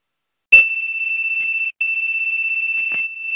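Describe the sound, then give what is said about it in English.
A high-pitched electronic beeping sounds loud, a rapid pulsing tone that runs continuously for about three seconds with one brief pause, no voices present. “Beeping.”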